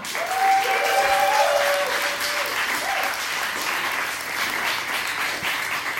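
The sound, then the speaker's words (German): A crowd at a comedy show applauds loudly and steadily for a comedian being introduced, with a few whistles and cheers rising early on before the clapping continues at an even level. “Macht richtig Lärm für Kilian!”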